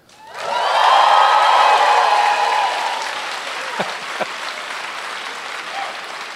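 audience cheering and applause

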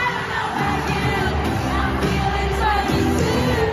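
stadium crowd cheering

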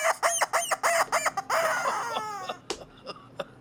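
rubber chicken toy squawking

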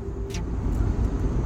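car driving

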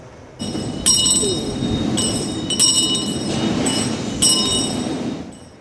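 church bell ringing

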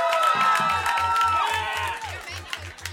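crowd cheering and applauding

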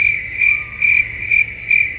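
crickets chirping sound effect

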